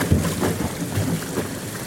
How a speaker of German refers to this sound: Guck mal, hier ist ein Deckel, man kann sich da draufstellen und dann macht das Wasser. Ach so so Spritzerei. Es also ist quasi ein Wellenerzeuger, aber zu zweit macht das wahrscheinlich wenig Sinn.